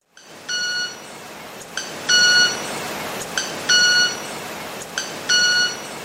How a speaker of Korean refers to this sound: 이 수컷 곤봉 날개 마나킨새가 네. 1초에 100번 비비면서 암컷을 유혹할 때 낸 소리.